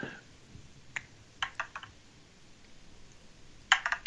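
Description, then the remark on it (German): A six-sided die clatters across a hard surface: one sharp click, a quick run of several rattling taps, a quiet pause, then a final brief burst of clicks, landing on side two. No voices. “Der Würfel klebt heute.”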